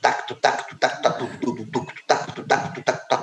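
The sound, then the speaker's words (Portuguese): A single voice chants a steady, repeating percussive syllable pattern, vocally imitating the basic beat of a samba school's caixa snare drum, about eight quick beats in a row. “Isso é a base de toque da caixa da escola de samba.”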